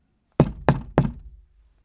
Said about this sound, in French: Trois coups frappés à la porte interrompirent soudain ses réflexions.